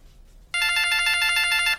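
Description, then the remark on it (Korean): A phone ringtone starts abruptly and plays a bright, repeating electronic melody of rapid high-pitched tones, loud and steady for over a second before cutting off. No one speaks. “어머, 아유 전화 왔네.”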